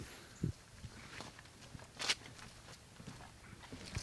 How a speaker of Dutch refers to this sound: Terwijl we over de plankjes lopen. Want waren die plankjes er niet, dan hadden we echt natte voeten.